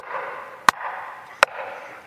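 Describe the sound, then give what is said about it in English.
Two sharp, distinct knocks spaced under a second apart, each a crisp single impact standing out over a steady, soft background hiss. “It'd be like a Saturday afternoon when that knock occurs”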